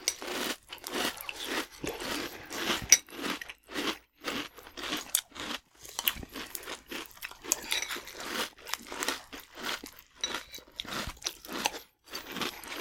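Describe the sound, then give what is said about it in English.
Crisp crunching of a sugary puffed rice cereal, rice curls like sugar-coated Rice Krispies, with steady bursts of chewing and crackling repeating throughout, fairly quiet and without any talking. “They're, they're literally Rice Krispies coated in sugar.”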